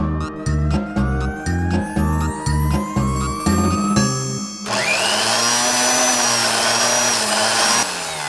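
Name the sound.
electric drill whirring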